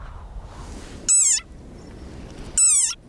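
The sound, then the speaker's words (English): An angry desert rain frog squeaks twice, loud, each call a shrill, harmonic squeal that slides downward in pitch, with a quiet, hissy pause of about a second between them. “Like this desert rain frog. Squeaking viral sensation.”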